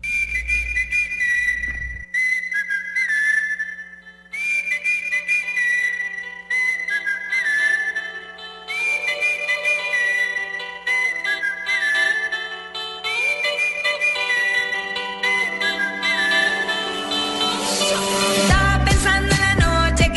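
A recorded pop song plays on its own, a bright whistled melody repeating in short phrases over a steady low hum, then swelling into fuller, louder instrumentation toward the end.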